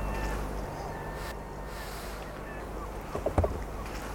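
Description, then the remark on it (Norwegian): A few harsh gull calls ring out near the end, short, over a steady low rumble of a boat motor and water with no one speaking. “Hør måsen av vårmåke.”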